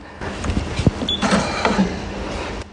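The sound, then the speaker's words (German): A shop scale in a bulk-goods store prints a weight label after a customer's own container is weighed: a short burst of mechanical whirring and creaky clicking that runs for a couple of seconds, then stops, with no voices. “Das ist schon das Geräusch gewesen.”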